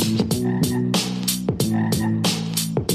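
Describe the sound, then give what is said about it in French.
Toads croaking in a steady, overlapping chorus, with rhythmic pulsing calls repeating roughly every half second, loud, with no voices. “Les crapauds.”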